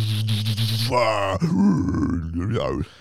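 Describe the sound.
A man's voice imitates guttural, growled heavy metal vocals for about three seconds, a continuous rough, low roaring with shifting pitch, loud, with no real words.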